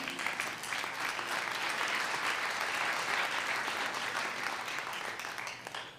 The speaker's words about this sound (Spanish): Camón, aplaude al Señor.